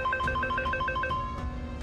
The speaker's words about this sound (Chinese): 绿毛的电话突然响了，易星吓了一跳。